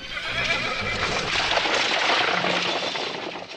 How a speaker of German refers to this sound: Hatte da gerade ein Pferd gehört? Ach, herrje, genau unter seinem Hotelfenster verläuft die Straße. Und hier in der Hamburger Hafengegend ist so spät abends erst richtig was los.